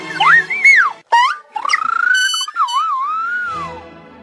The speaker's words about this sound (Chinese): 那么，现场在迪图瓦大师的指挥下，坐在不同区域的观众都拿出手机来播放这段鸟鸣。那和台上交响乐的演出可以说配合得非常默契，融为了一体。